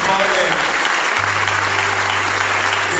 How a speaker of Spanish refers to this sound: Así que un aplauso para esta gran docente y para este valiente